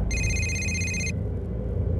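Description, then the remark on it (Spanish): A telephone rings once with a bright, steady electronic tone lasting about a second, then cuts off, leaving a low background rumble. No one speaks. “Uno de ellos decidió acelerar las cosas y la llamó por teléfono.”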